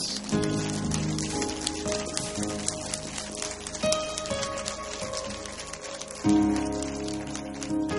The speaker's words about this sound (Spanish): Dale ese aplauso a él, dile gracias.